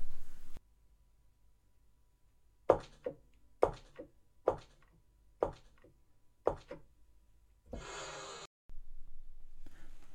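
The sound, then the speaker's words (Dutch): Six sharp, evenly spaced knocks on wood ring out, followed by a short, breathy rush as a small door swings open. “Deurtje open.”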